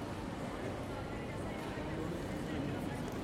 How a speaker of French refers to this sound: J'entre à la gare. La foule y est dense.